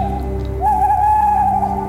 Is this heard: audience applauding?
no